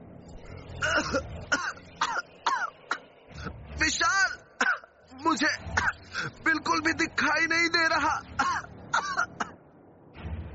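Repeated loud, harsh coughing in rapid irregular bursts with strained, choked vocal gasps between them, from people choking on smoke, going on for about ten seconds before trailing off.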